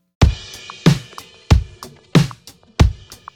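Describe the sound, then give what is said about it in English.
A steady drum pattern, with heavy kick-like thumps landing about every two-thirds of a second, each paired with a bright crash cymbal wash that rings briefly before the next hit. “I'll add the crash with it.”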